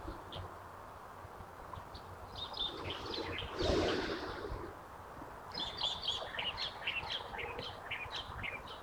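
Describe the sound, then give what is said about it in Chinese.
Light-vented bulbul calls: bright, chirpy phrases of short repeated notes, one brief burst early and a longer run of chattering notes later, over a steady low outdoor hiss with a soft rustle midway. “啊，你听到了这个声音，就是白头杯的声音呢。”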